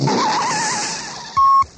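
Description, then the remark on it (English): Car tires screech loudly in a long, wavering skid that fades as the vehicles stop, ending with a brief, sharp, steady squeal. No one speaks. “Now the cars stop.”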